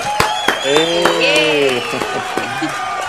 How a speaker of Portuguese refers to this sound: Pois é, nós né? também, palmas pra Ju.